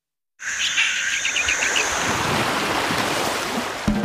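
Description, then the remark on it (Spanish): Steady surf washes in broad at a Caribbean beach, a continuous wave roar, while a series of quick bird chirps flutters above it in the first couple of seconds. “Si lo que necesitas es oír esto, necesitas la Semana del Caribe de Viajes El Corte Inglés con New Blue.”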